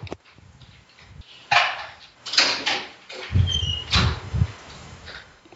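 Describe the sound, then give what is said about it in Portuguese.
A dog barks in a few sharp bursts, then a quicker run of barks, fairly loud, with some rattling and clunking in the background as someone unlocks a door latch, bolt and padlock, and no one talking. “Abre aquela trava, abre o ferrolho, o cadeado, destrava isso, prende o cachorro.”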